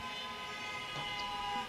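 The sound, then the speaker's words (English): A car horn blares outside a house after a car crash in front of it, a steady sustained honk with traffic-like rumble underneath and no impact clearly audible; no one speaks. “Well, Ooh, what are that car crash over there?”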